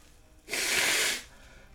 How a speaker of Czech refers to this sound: Já se vysmrkám.